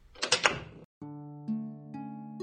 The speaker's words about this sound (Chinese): 我轻轻推开了门